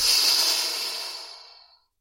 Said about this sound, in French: Puis prendre une grande inspire. Expire.